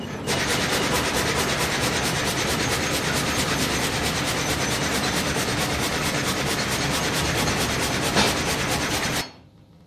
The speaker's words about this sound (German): Jetzt haben wir einen Baum aufgelegt, jetzt schalte ich noch Gebläse ein und dann sägen wir.